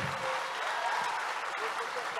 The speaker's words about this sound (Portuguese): Dá um aplauso pessoal da mídia que está ali trabalhando.